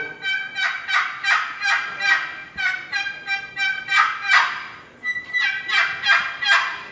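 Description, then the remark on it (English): An aluminum turkey call with an aluminum lid being worked in a steady series of nasal, raspy yelps, loud, repeating in quick rhythmic bursts with no talking over it. “The lid is made out of aluminum and it's got volume and it's got a just old good nasal sound that the turkeys love.”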